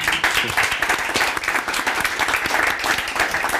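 A live audience in Coburg, at the Güterbahnhof grounds, breaks into sustained applause, a dense, steady wash of many hands clapping at once, loud throughout with no voices standing out.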